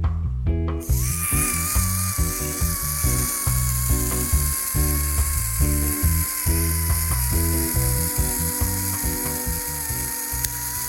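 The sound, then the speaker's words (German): A mechanical Autoknips camera self-timer whirs for about ten seconds, a steady buzzing clockwork rattle with a thin high whine over it, starting abruptly after a brief moment of quiet. “Dieses Geräusch ist ein Autoknips. Der Autoknips, ja, ist ein, ist ein, Auto, ist ein Fernauslöser.”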